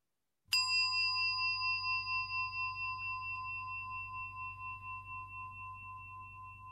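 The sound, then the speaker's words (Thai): A single meditation bell is struck once to begin a group sitting meditation before a Dhamma talk. It rings out with a clear, sustained tone that slowly fades over several seconds, with a faint low hum underneath and no voices. “ขอเชิญชวนญาติโยมทุกท่านได้มีสติกลับมาอยู่กับเสียงะระฆังสักหนึ่งเสียงะระฆังด้วยกัน”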